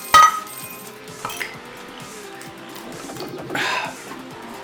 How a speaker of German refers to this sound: ich würde sagen, simultanes Öffnen dieses, was hast du hier denn bereitgestellt? Ein, ein Mönchshof Naturradler. Naturradler. Ja, das ist ja gut. Also dann, 1, 2, 3, hops. Ach, nicht naja. ganz synchron, aber.